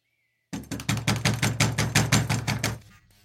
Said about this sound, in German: Endlich klopfte Kaspar an die Tür der Scheune.